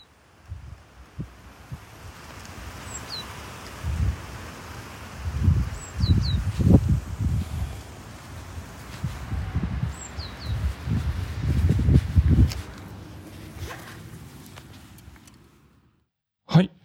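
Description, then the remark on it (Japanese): Faint bird calls chirp now and then over an outdoor ambience at Ryutan Pond, near Shuri Castle in Shuri, within the castle's park grounds, with low rumbling thumps and rustling swelling. No one speaks. “鳥の声がちょっとかすかに聞こえてきて、はい、まあ、これも野外なのかなという感じですけれども、これどちらでしょうかね。”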